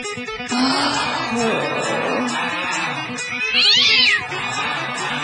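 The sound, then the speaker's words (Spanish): Several cats meow loudly and overlap one another in a noisy, crowded mix, with one drawn-out, wavering yowl standing out near the end. “Cálmense, gatitos.”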